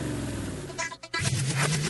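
A loud engine roars, briefly cuts out for a moment, then revs back up with a rising, droning pitch that holds steady to the end.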